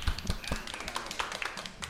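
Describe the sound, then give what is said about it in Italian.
A steady patter of applause from a small group in a studio fills the space, many quick overlapping claps at an even, moderate loudness, with faint voices murmuring underneath. “Salutiamo il gallo gallerino e facciamo un grande applauso nello studio”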